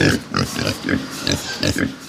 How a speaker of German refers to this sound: von Beruf Zuchteber und Pustelschwein aus dem Landauer Zoo. Pustel, weil diese Schweineart sowas wie Knubbel an der Schnauze hat.